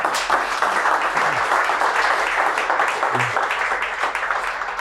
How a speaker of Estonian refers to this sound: ma palun muidugi aplausi ka.